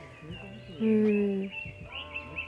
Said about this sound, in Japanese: 今この公園に来てるんだけど本当に声鳥の声がすごく心地よくてですね